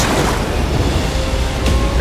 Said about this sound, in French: Parvenu à la surface, Aronnax entend une violente détonation. Puis deux, puis cinq